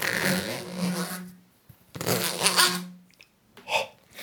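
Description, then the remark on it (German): A swung yellow, fluorescent corrugated flexible plastic tube, like electrical conduit but a bit larger, whooshes and whistles in two long, airy bursts, then a shorter one, its pitch shifting between several tones beneath a rushing wind-like noise, fairly loud. “Das Interessante hat man jetzt gehört, da kommt nicht einfach ein Ton raus, sondern ganz viele verschiedene.”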